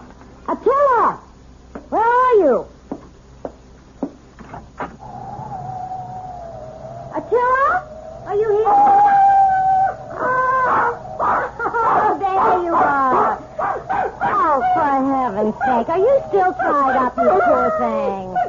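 A dog named Attila, tied up, whimpers and howls, starting with a few short rising-and-falling wails, then a long drawn-out howl, followed by a busy stretch of overlapping whines and yelps.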